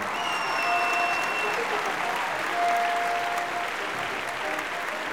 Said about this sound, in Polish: Hmm, no to teraz oklaski dla tej pięknej rybodamy Aina Line.